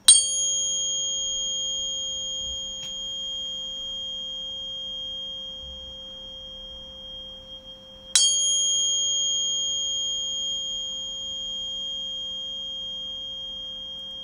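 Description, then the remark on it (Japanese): A tuning fork is struck and rings with a pure, steady tone, then is struck again partway through, each strike adding a brief metallic ping before the long sustained hum. No voices. “今お聞かせしたのも同じ周波数なんですけどやっぱり音差の方が綺麗に聞こえますよねもう一度お聞かせしましょうか。”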